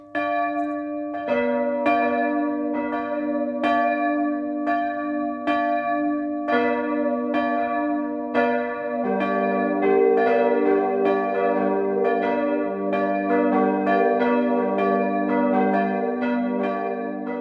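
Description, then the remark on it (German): Church bells ring the 12 o'clock midday peal in Mühlhausen an der Wern, Lower Franconia, Schweinfurt district, Bavaria: a steady stream of loud, overlapping strikes with rich lingering overtones; a deeper bell joins partway through, thickening the sustained chorus. No voices. “Das Mittagsläuten kommt heute aus dem unterfränkischen Mühlhausen an der Wern.”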